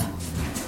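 A dog playing with a cat gives a short, low, throaty vocalization, a brief growly grumble lasting under a second, steady in loudness.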